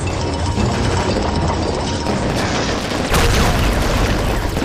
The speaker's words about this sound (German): Ich, ich feuere mit Laserkanonen auf die Bierlichter. Zum Teufel damit!